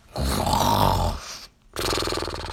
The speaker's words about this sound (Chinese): 在打呼噜呢